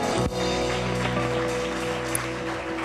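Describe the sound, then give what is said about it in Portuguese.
An audience applauds the name of the Lord in a dense, continuous burst of clapping lasting a few seconds, with steady sustained musical tones humming underneath and no one speaking. “Aplauda o nome do Senhor se você puder.”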